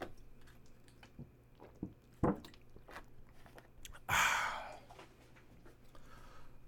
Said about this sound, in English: First of all, um, I'm going to take another sip of water.